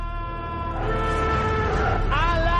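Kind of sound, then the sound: sound effect, alarm siren sound effect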